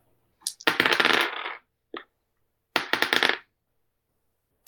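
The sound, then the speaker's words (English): Two bursts of three six-sided dice clattering and tumbling across a hard surface in a game, rolled for a hit with a club, fairly loud, with a brief click between them and no voices. “You give me a uh, 3d6 for, for using a, a club.”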